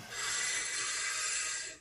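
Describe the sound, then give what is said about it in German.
One long, steady breath drawn in through an open mouth, airy and breathy, fairly quiet, lasting nearly two seconds with no talking, during a guided breathing exercise with eyes closed. “Dann bitte ich dich, die Augen zu schließen und wir atmen jetzt gleich nur durch den Mund ein und aus.”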